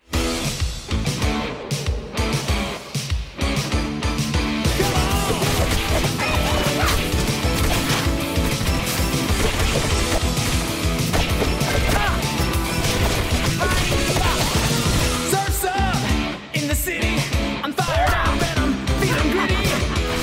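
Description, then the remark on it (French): Rapid punches, whacks and crashing impacts from a fight in the beat 'em up video game Teenage Mutant Ninja Turtles: Shredder's Revenge pile up over a dense, driving backing track, loud and continuous for about twenty seconds. “C'est tout simplement le retour des Tortues Ninja avec Thrillers Revenge écoute ça.”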